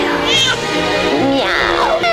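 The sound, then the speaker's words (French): A person's voice loudly imitates a cat, giving two drawn-out, wavering meows in quick succession. “Je suis Catwoman. Écoutez-moi rugir.”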